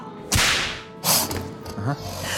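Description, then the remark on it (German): Two sharp, loud cracks of a circus whip named Mysteria snap out about a second apart, followed by a softer swishing lash, with no talking. “Das ist nur Mysteria. Meine Peitsche.”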